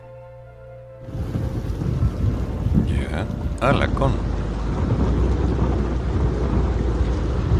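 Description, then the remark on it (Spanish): Floodwater rushes loudly down a channel at the road linking Sierra Gorda and Calama, in a dense, steady roar that starts abruptly after a moment of quieter background, with a voice briefly speaking over it. “Bueno, no son dos gotas de agua precisamente.”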